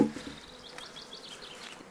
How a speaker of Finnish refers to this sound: Eli pesän päältä otettiin ekana painot pois, sitotaan toi katto pois. Ahaa, hyvihän täällä on mehiläisiä.